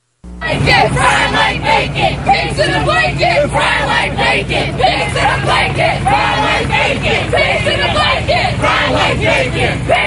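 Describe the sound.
A large Black Lives Matter protest group marches at the Minnesota State Fair, chanting "Pigs in a blanket, fry 'em like bacon" in a steady rhythm, many voices shouting together in repeated bursts over a constant low rumble of the outdoor gathering, loud throughout.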